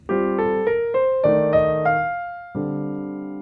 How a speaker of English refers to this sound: So now we have uh, the entry point being shifted to the fifth of our minor chord. So our 251 is going to sound like this.